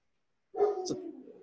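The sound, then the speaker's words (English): After a brief silence, a pet dog lets out one drawn-out, tonal bark that trails off, heard alone with no one talking. “wow, even the dog chimed in.”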